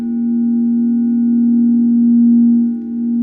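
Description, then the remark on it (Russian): A Tibetan singing bowl hums during a meditation with a steady, sustained ringing tone and soft overtones, fairly loud, swelling slightly and briefly dipping before the end. No voices. “Тибетские чаши, гонг”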